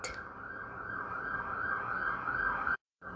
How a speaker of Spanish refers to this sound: Una disculpa por el ruido que se oyó ahorita, lo que pasa es que tengo aquí como una tipo alarma que suena cada cierto tiempo. Entonces pues la tuve que apagar.